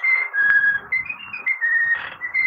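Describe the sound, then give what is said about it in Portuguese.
Mickey Mouse whistling a bright, clear tune with a series of sustained notes that step up and down in pitch, loud with no talking. “É o Mickey? Essa que porra? É Mickey, é Mickey.”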